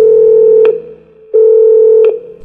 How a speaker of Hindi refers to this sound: कुछ देर 711 के बाहर खड़ा रहा कि तभी कॉरिडोर का फोन बजा